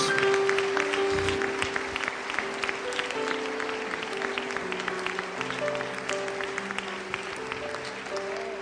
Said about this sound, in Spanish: Démosle un aplauso a todos esos niños que se están portando bien en la casa de Dios.